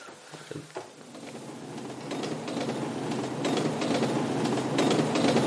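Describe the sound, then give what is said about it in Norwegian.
A train rolls along the tracks, its rumble building from quiet to a steady loud roar with faint rhythmic clatter of wheels, no voices present. “Og toget tok med seg bilen og gutten nedover sporet.”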